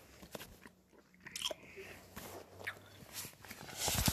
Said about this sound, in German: Und wir probieren erstmal das Ananas-Bonbon.